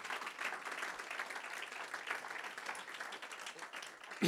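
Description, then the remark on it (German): An audience applauds steadily in the morning to welcome online viewers and listeners, a dense wash of many hands clapping at a fairly even loudness throughout, with no voices over it. “Lass uns unsere Zuseher und Zuhörer mit einem kräftigen Applaus bitte begrüßen heute Morgen.”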